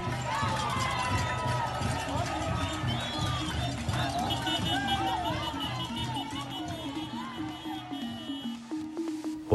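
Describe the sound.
A large protest crowd walks through dark streets at night in Holguín, Cuba, lighting the way with mobile phones and calling for an end to the government; many voices overlap in a steady murmur with scattered calls and shouts, footsteps and shuffling underneath, sustained throughout.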